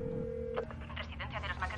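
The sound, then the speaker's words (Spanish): A steady, mid-pitched telephone tone hums for about half a second and then cuts off, giving way to a voice speaking over a faint line hiss. “Está al teléfono.”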